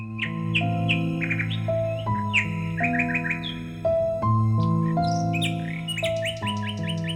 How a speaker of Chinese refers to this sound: 在大殿的中央，人们竖起了一根金子做的柱子，好让夜莺站在上面。夜莺果然为大家唱了一首美妙的曲子。